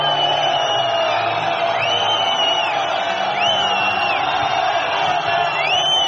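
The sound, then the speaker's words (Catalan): A large crowd jeers at coach Xus Vidorreta as he comes out onto the court, a loud, sustained wall of whistling, shrill piercing whistles rising and falling again and again over a constant roar of voices. “I sí, efectivament, la xiulada és...”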